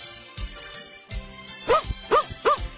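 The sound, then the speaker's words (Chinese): A dog barks three times in a quick, evenly spaced run, each bark short and mid-pitched, following a few soft low thumps at the start. No one speaks. “小狗叫来小猫，小猫拽着小狗，小狗拽着小孙女儿，小孙女儿拽着老奶奶，老奶奶拽着老爷爷，老爷爷拽着大萝卜，嘿呦嘿呦嘿呦嘿呦嘿呦，还是拔不动。”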